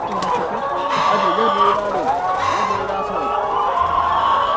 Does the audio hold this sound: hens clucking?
yes